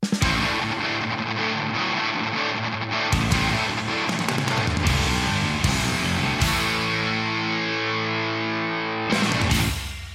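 A loud, dense heavy metal song played on the Jernverket show on Radio Rock, with thick distorted guitars churning continuously, chords shifting every few seconds with a few sharp accents, and no voices.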